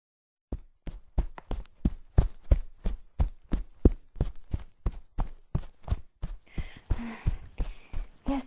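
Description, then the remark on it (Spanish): Quick, evenly paced footsteps run for several seconds, each step a sharp thud, with heavy breathy panting rising over them near the end, as a girl runs to a friend's house. “Entonces, al día siguiente, Diana, literalmente corriendo, fue a casa de María.”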